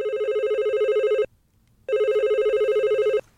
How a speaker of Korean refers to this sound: 몇 시나 되었을까? 마당 건너 주인집 대청마루에 전화가 울렸다.